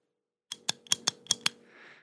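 Six sharp mechanical clicks from a hand tally counter, held in the hand and used for counting at a marathon, pressed in a quick, slightly uneven rhythm, followed by a soft brief rustle.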